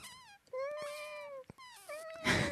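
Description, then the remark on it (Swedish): A kitten meows repeatedly: a few high, drawn-out mewing cries in quick succession, fairly loud, ending with a harsher, breathy squeal. “Eh, den andra, kattungarna har inte fått komma till tals till exempel.”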